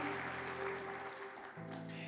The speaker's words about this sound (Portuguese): Aplauda o Senhor, aplauda o Senhor, aplauda o Senhor. Oh, aleluia.